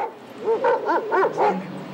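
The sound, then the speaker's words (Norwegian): Police dogs bark in a quick, evenly spaced run of about five sharp barks, clear, with no voices over it, as police with dogs search the whole Oslo courthouse building in the morning before court sits. “Politifolk med hunder gjennomsøkte hele bygningen før retten ble satt klokka halv ti i formiddag.”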